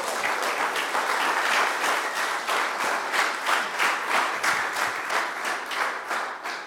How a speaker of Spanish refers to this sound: Dele otra vez palmas al Rey.